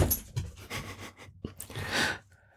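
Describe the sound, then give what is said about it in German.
A dog sitting or standing right beside the speakers pants in quick, rhythmic breaths, loud and steady with brief pauses, no voices present. “Wir haben ja schon von Hunden gesprochen und der, der da jetzt bei uns oder mit uns sitzt oder steht, ist jetzt nicht in der Social Media Timeline, sondern der ist da live neben uns und äh, werden wir kurz versuchen, den zu beruhigen.”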